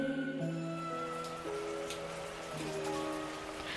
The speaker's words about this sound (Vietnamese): Lách tách, lách tách, mưa ngày càng nặng hạt, như muốn gột hết cả đất dưới chân.